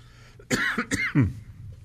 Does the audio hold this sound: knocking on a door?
no